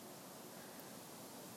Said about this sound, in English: What's that you hear? It's the sound of wind in the willows. And by that I mean, um, I'm not sure what kind of tree Definitely not willow trees, but it's they're like um, I don't know whatever trees are in parks. I'm in a park. I'm in Prospect Park